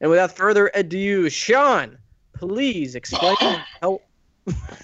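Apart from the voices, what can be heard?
sneeze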